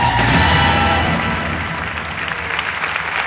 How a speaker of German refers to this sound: Bitte begrüßt mit einem herzlichen Applaus euren Gastgeber, Philipp Fleiter.